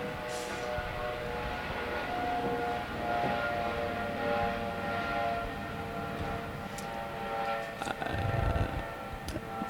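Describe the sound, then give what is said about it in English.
A steady, droning roar of an airplane passing overhead fills the whole stretch, loud and continuous with a sustained tonal hum, no voices over it. “Um, I'll wait for the plane to fly over a little bit because it will affect this.”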